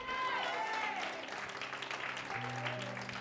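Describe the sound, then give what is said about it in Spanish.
A crowd applauds steadily and loudly throughout, a dense wash of clapping with scattered voices calling out, while sustained keyboard chords hum softly underneath. “¿Cuánto le da un aplauso, amigo?”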